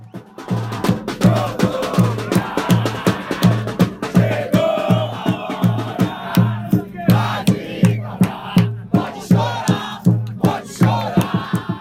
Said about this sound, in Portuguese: Primeiro tempo da partida acabou 0 a 0 e, mesmo em um jogo sem muito brilho, a torcida do 10 mais uma não parou de cantar um minuto sequer.